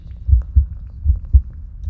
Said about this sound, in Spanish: Visualiza los latidos de tu corazón, extendiendo tu energía vital hacia tu mano derecha